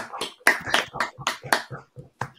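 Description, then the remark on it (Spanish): Hands clap in brief applause, a dozen or so sharp, uneven claps from what sounds like a small group, moderately loud, fading out after a couple of seconds. “Un aplauso que se lo merece.”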